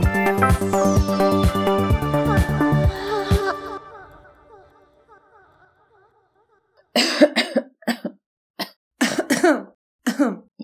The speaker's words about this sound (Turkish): Bu bölümde köhür köhür öksürüklerin etrafımızdan eksik olmadığı günlerde herkesin hasta olması üzerine bir şeyler söyleyeceğiz.